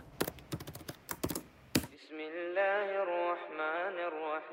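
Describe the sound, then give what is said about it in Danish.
Quick, irregular clicks of typing on a computer keyboard, googling the Koran, for about two seconds, crisp, then the typing stops and a sustained, melodic chanting voice takes over. “Og det er på YouTube, at hans religiøse tilbagevenden starter – så googler jeg Koran.”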